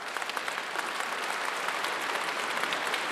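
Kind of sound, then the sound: crowd, loud applause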